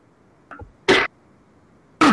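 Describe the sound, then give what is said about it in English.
Two sharp, loud coughs about a second apart, preceded by a softer catch in the throat, with quiet background and no talking. “uh, actually, I was coughing”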